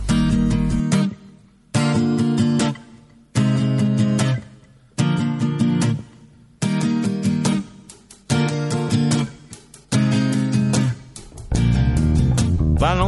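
A slow, gentle ballad plays on its own, full warm chords swelling in steady repeated phrases separated by brief dips, at a moderate, even level with no talking over it.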